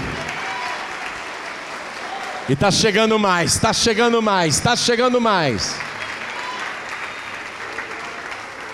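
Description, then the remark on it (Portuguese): An audience applauds the Lord Jesus as people come forward, a steady, dense wash of clapping that lasts the whole time, while a man's raised voice calls out over it for a few seconds in the middle. “Vamos aplaudir ao Senhor Jesus por cada vida que está se sujeitando a Deus.”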